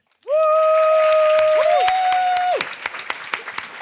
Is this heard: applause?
yes